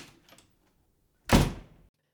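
A door shuts with one loud thud that fades quickly, preceded by faint rustling. No one speaks.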